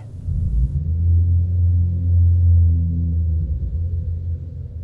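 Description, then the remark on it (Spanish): A deep, loud rumble of thunder rolls on steadily for several seconds, heavy and low, with no voices over it. “En ese momento un trueno espeluznante retumbó por el lugar, todos nos soltamos saltando de la impresión”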